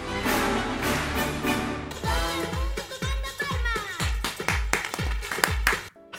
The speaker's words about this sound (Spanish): programa musical varía cada año, pero eso sí, siempre se cierra con la misma pieza, la que estamos escuchando, la marcha Radetzky, en la que el director de orquesta, que este año es Franz Belser Most, pide la colaboración del público y de sus palmas.